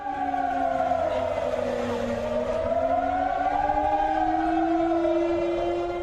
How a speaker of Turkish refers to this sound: Kosova'nın kuzeyinde yaşayan Sırbistan vatandaşları tepkilerini yollara barikat kurarak gösterdi. Siren sesleriyle protesto çağrısı yaptılar.